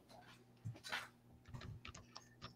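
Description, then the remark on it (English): Soft, irregular clicking of keys on a computer keyboard, a scattered run of light taps with short pauses between them, quiet, with no talking, as someone types text to put on the screen. “I was I was typing in here.”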